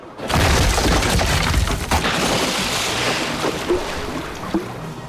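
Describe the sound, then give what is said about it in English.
A huge wave crashes in and sinks an already struggling vessel, with a loud, sustained roar of churning water and debris, a sharp boom near the start, then a heavy rushing wash that slowly subsides. “A gigantic salty train instantly burst from the tin, sinking the already struggling vessel.”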